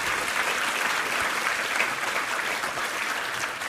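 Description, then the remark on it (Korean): An audience at a Thanksgiving worship service claps together in praise to God, in steady, dense applause that holds at an even loudness for several seconds, a bright crackling wash of many hands with no voices standing out. “할렐루야 우리 하나님께 감사 영광의 박수 올려드리겠습니다.”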